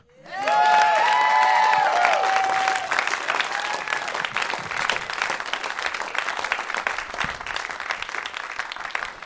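A live crowd at a rap show erupts in loud, sustained applause with whoops and cheers for a performer, tonal shouts rising early on before settling into a dense, steady wash of clapping that carries on throughout.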